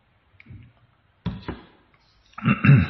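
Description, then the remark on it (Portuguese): Someone takes a drink of water: a couple of sharp knocks as a cup or bottle is handled, then a short, louder burst of sipping and swallowing, with no talking. “Deixa eu tomar água aqui.”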